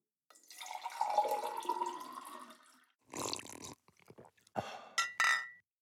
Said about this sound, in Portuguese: Vou até beber mais um pouco.